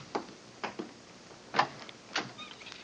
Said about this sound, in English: Come on, let's try this door.